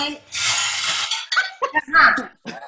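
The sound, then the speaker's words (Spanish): A bingo ball clatters and rattles in its cage in a dense, bright burst lasting about a second as the first ball is drawn, its number setting the question in a question game, then a person starts talking; the ball drawn is number 29. “Allá voy y que venga la primera bola, se escucha la bola del bingo”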